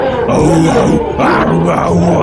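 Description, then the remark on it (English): A voice imitates a chorus of orc battle cries: loud, guttural roaring yells in two sustained bursts with a brief dip between, raspy. “like the yelling the battle cries of these orcs”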